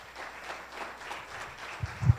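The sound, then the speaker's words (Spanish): A church audience at Tabernáculo Ciudad Merliot claps together for God in a steady, dense wash of applause that carries through the whole moment, with a couple of low thumps near the end and no one speaking over it. “Regálenle un fuerte aplauso a nuestro Dios.”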